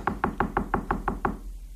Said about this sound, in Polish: Bo ktoś puka.